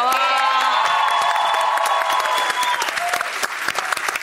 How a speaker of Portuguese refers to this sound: vamos aplaudir que ela está ali.